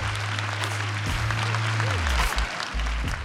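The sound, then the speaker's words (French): Steady applause from a crowd of wedding guests as the couple exchange vows under a veiled tent decorated with white orchids by the ocean: dense, continuous clapping filling the whole moment at moderate loudness, with a low hum and faint murmuring underneath. “C'est au bord de l'océan sous une tente voilée ornée d'orchidées blanches, qu'ils échangent leurs vœux sous les applaudissements de leurs proches.”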